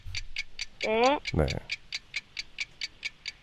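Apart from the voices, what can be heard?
stopwatch ticking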